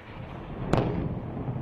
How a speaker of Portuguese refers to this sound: Explosões foram ouvidas na cidade de Gaza na madrugada desta terça-feira, em meio ao conflito em curso entre o Hamas e Israel.